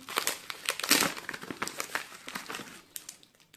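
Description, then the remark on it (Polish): Paper crinkles and rustles as an envelope is opened, a dense run of crisp, irregular crackles with a louder burst near the start, then fading to softer handling sounds. “Zobaczymy, co jest w kopercie.”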